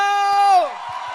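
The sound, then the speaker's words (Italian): A loud, sustained whooping cheer slides downward in pitch, then gives way to a brief wash of crowd noise and scattered clapping from a concert audience applauding itself after singing the last chorus. “Fatevi un applauso!”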